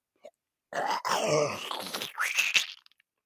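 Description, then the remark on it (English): A voice imitates a big, wet spit: a gravelly, throaty hawking rasp lasting about two seconds, then a sharp spitting burst that trails off into a few small clicks. “Well, the dumbest person I've ever known comes up to this this guy and he's talking to him and he spits right in his oil drain unit. And we're not talking like a little we're talking like a”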